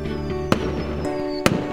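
A microphone is dropped, giving two sharp, loud thuds about a second apart over a steady low electrical hum, with no talking.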